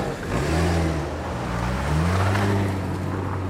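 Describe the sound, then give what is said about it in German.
A taxi engine revs up as the driver accelerates in the rain in the small town of Regen, its low hum rising and falling in pitch across a few seconds, loud and steady with no voices over it. “Schnell nimmt der Kongo-Käfer ein Taxi. Die Taxifahrerin gibt Gas.”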